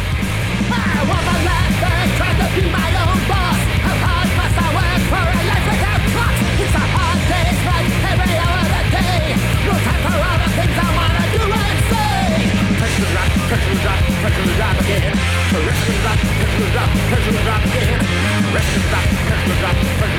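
A loud, dense music track plays without a break, with heavy low-end instruments, a steady driving rhythm and strained, shouted-sounding vocals over a full mix.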